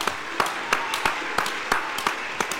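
A small audience claps in a steady, evenly spaced rhythm, sharp individual hand claps standing out over a soft, noisy background, moderately loud, applauding the next singer on the Despierta TV show.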